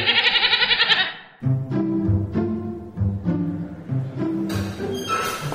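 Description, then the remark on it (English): A harsh, quavering goat bleat opens loudly, followed by several more wavering, prominent bleats in a row, with a brief hiss of noise near the end; goats brought for sacrifice at the Lupercalia Festival. “Sorry to interrupt, but there's a bunch of citizens outside who wish for you to witness the sacrifice of the goats and dogs.”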